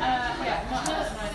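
Steady crowd chatter in a posh pub, a gin palace serving cocktails: a dense blur of many overlapping voices with no single speaker standing out, holding at a constant moderate level throughout.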